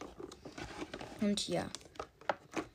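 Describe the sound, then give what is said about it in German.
Crinkling and rustling of plastic packaging as a person struggles to get a new cosmetic product out of it, irregular and scratchy, while the person talks briefly over it. “Erstmal entschuldige wegen den ganzen Hintergrundgeräuschen, die jetzt deswegen entstehen. Nur weil ich mein komisches Produkt da nicht rausbekomme.”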